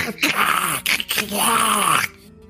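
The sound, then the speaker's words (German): A voice imitates aggressive lizard creatures roaring as they attack and advance: a loud, raspy growl, a brief break, then a longer strained snarl that rises and falls before cutting off abruptly. “die Echsen greifen an ihre Beine, wo quasi so äh, um ihre Beine gewickelt äh, so Stein, so Keulen dranhängen, an denen spitze Steinchen festgemacht sind und wickeln die los und bewegen sich auf dich zu, schreien oder brüllen ein aggressives.”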